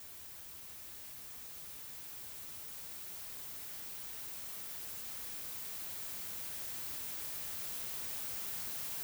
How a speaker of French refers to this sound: Les instructions te demandent d'entrer en contact avec le bruit blanc, un son très délicat qui réagit à tout ce qui l'entoure. Ça, c'est le bruit blanc.